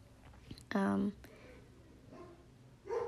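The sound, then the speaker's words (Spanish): A dog lets out one loud bark, followed by a quieter, shorter yelp near the end over faint background noise. “no este perro comienza a ladrar lo que me faltaba”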